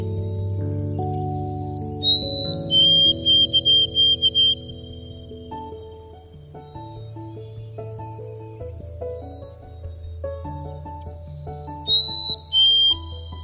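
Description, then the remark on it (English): A sparrow sings two bursts of clear, high whistled notes, one early and one near the end, sounding bright over a soft bed of steady instrumental music. “figuring out it was a sparrow was just hilarious to me because I kept being like, what is that beautiful sound?”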